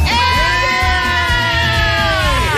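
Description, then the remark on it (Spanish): Several people scream and yell together at full volume on the morning radio show El Vacilón, a sustained, loud burst of raised voices that holds steady for a couple of seconds before trailing off. “Estamos bien, estamos ¡Griten por mí!”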